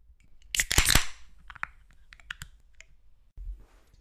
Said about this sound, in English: Oh, I love the sound of a good can opening. So good.